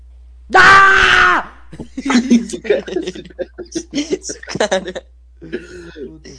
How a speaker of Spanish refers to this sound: A ver, grita.